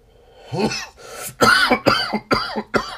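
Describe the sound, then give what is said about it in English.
A burst of loud coughing: several harsh, rasping coughs in quick succession, with a throat-clearing rasp before the main fit, no talking. “As we get out of here as we're coughing.”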